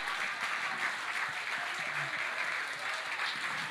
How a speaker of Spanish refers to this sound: Si le va a dar un aplauso.